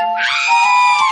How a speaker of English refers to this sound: That beautiful sound. That is the sound of clean white shorts turning brown. Torture and pain. Breaking a brain. A sound that says, I will never sleep well again. The sound of a scream.